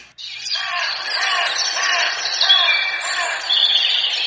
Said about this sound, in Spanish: Quiero vivir en un lugar silencioso, pajaritos cantando, mientras el sonido del viento interrumpe mis pensamientos.